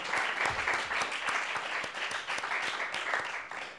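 An audience claps steadily, a dense wash of many hands with sharp individual claps standing out, holding a fairly even loudness from start to finish.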